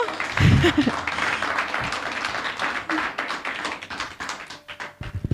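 A church audience claps together in a sustained burst of applause for the Lord, dense overlapping hand claps at moderate volume, with a few low murmurs underneath and a brief tonal hum near the end.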